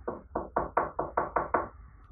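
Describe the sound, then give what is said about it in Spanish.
A neighbor knocks on a door in a quick run of eight firm knocks, evenly spaced in a steady rhythm, fairly loud with no voices around them. “Entonces decide no llamar a sus padres cuando una vecina suya toca la puerta”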